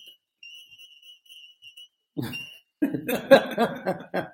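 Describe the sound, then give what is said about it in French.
A building alarm that someone forgot to switch off sounds a thin, high-pitched tone in repeated pulses, fairly faint, alone at first and then continuing softly beneath laughter and lively voices. “Il y a une alarme. il a oublié, il a oublié de, d'enlever l'alarme.”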